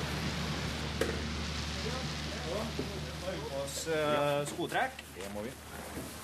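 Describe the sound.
At a fish farm, feed pellets are blown by compressed air through hoses out to the net pens 50 to 300 meters away, a continuous dry patter like light rain over a low mechanical hum, with a person briefly talking partway through.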